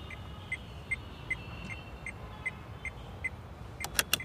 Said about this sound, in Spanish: Por eso puso las intermitentes del auto y se orilló hasta una banqueta.